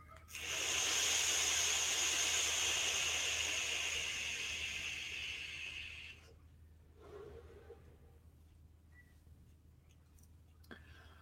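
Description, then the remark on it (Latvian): A steady crackling hiss of an e-cigarette coil firing at its maximum power of 80 watts during a long inhale, lasting about five seconds before cutting off, followed by a soft exhale and faint clicks. “Nu, tas ir maksimums, ko šī saprāta spēj dot ārā. Ja? Nu, tad mēģinām.”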